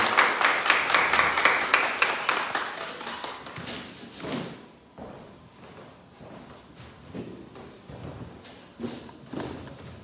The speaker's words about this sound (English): Come on, clap your hands.